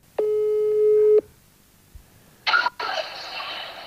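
A single steady telephone ringing tone of about one second, heard clearly on an outgoing call to someone in Los Angeles, followed by a brief click and then a burst of hissy line noise as the call connects.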